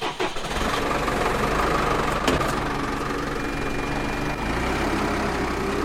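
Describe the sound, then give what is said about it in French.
A blue tractor's engine idles with a steady, heavy low rumble and mechanical rattle, broken by a couple of brief clunks, with no one speaking, as it carries the seed stock to fill the seed drill before sowing the fields. “il monte dans un tracteur bleu”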